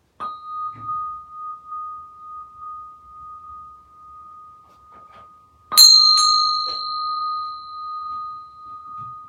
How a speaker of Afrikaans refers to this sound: Het is een beetje vol moeite, die klok.